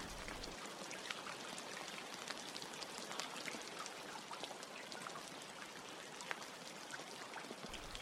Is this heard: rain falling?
yes